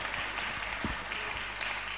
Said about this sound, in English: Give a round of applause for Chris.